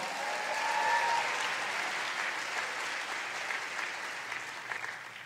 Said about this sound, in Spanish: ¿Cuántos de ustedes están agradecidos con Dios, admirados por lo que ha hecho el Señor en sus vidas? ¿Cuántos? Denle un aplauso al Señor.